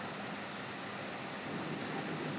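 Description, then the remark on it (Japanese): Steady rain falling, a dense, even hiss of drops spread across the whole clip with no pauses or voices, moderately loud. “そして今日はですね環境音第2弾ということで雨と電車の音をお届けしようかなと思います”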